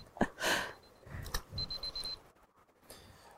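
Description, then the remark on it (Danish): A wristwatch alarm beeps in a quick run of thin, high-pitched pips, fairly faint, amid rustling and fumbling as someone looks for it in a deep pocket while fishing. “Nu biber uret.”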